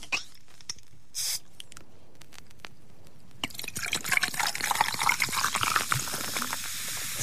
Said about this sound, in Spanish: parece un trago. Qué canchero. ¿Viste? ¿Cuánto gas tiene ese trago?